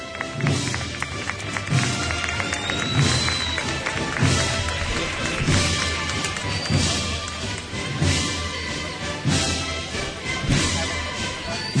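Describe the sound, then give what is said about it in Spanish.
A crowd in Plaza Niña bursts into sustained applause after a solo of the march Rocío as a procession with the Virgin arrives, a dense, steady roar of many hands clapping that holds loud for the whole stretch, with faint musical tones threading underneath. “Pues rompe la plaza Niña en aplauso eh, tras este solo de la marcha Rocío y que aprovechando el cambio de marcha sigue avanzando por esta plaza Niña para ponerse ya casi casi en la puerta de las Hermanitas de la Cruz.”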